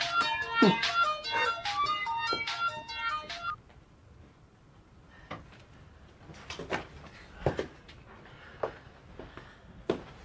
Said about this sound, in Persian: ببخشید چون تلفن رو زنگ میزنه ببخشید اینجا آنتن نمیده